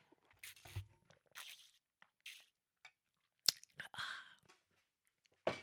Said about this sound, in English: Okay. me take a sip of water. Maybe I'll calm myself down. Mm-hmm. You want to hear me sipping my water?